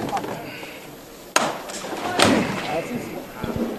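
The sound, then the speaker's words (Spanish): A foreman's knocker strikes a paso de palio procession float carried by costaleros: two sharp, loud knocks about a second apart, rising over the murmur and voices of a crowd. “Está llamando el capataz.”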